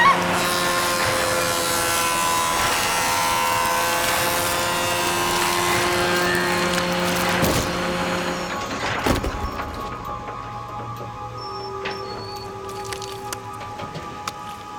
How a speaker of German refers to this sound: Stellen Sie die Säge ab.